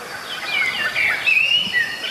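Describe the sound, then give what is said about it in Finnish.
A common blackbird sings right by the microphone in a small wood, in a run of clear, fluting whistled phrases, each sliding gently in pitch, loud against a soft background hiss with no voices, geese in the background. “Kyllä, ja Mustarastas on ihan mikrofonin lähellä.”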